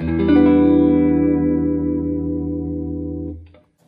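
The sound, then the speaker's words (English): A single sustained E7 chord voicing, its notes spread widely apart, rings out on electric guitar with a bright, effects-treated tone, holding steadily for over three seconds before being cut off abruptly. No one speaks over it. “Because this this voicing, it's it's really just an E7, you know, the last one, but it just sounds interesting because of how the notes are spread apart.”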